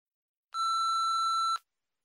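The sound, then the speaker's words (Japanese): A single steady electronic beep, about one second long, sounds cleanly on its own with a bright tone, the signal an answering machine gives before recording begins. “留守番電話のメッセージを聞いています。”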